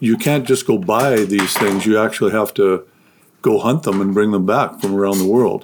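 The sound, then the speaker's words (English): A 107-pound, one-year-old female dog chews on something, making scattered clinking and clattering sounds under a man's steady talking. “Uh, and by the way, that noise you're hearing is my 107 pound dog, one year old dog, she Wanting to be in on this?”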